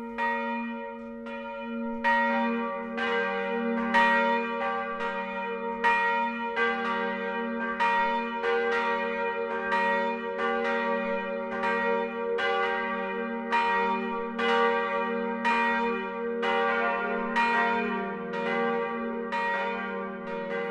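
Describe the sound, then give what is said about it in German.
Church bells of the Protestant St. Willibald church in Büchenbach, Middle Franconia, Germany, ring the 12 o'clock noon chime, several bells pealing together in a steady overlapping rhythm, full and resonant with a sustained hum beneath, heard clearly with no voices. “Das Mittagsläuten kommt heute von der evangelischen St. Willibaldskirche im mittelfränkischen Büchenbach.”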